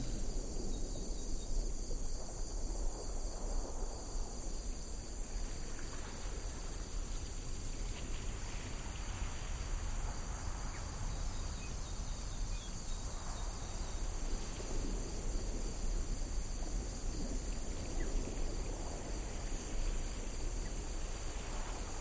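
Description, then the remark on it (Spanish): Abundant tropical rainforest ambience heard while walking deeper into the jungle: a steady, high-pitched insect drone hums without pause over a dense wash of low rustling and background noise, with no voices. “cada vez más presentes, cada vez más rodeados de esta abundante selva tropical”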